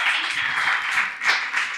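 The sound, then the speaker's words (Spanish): A steady burst of applause, a dense wash of many hands clapping that holds at an even, fairly loud level for just under two seconds, with no voices over it. “Maizoritos, loco, aplauden Maizoritos.”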